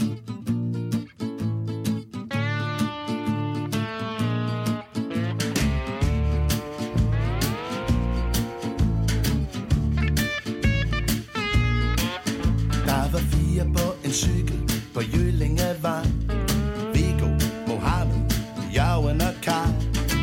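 A recorded song with a man singing lead over a full band, steady drums and bass, the music loud and continuous throughout.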